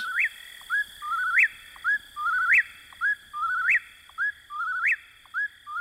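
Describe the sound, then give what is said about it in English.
An eastern whip-poor-will calls repeatedly, about five clear whistled phrases in a steady rhythm, each ending in a rising sweep, over a faint constant insect-like hum in a quiet night setting. “It remains, as Thoreau described, a bird of the night side of the woods, where you may hear the whippoorwill in your dreams.”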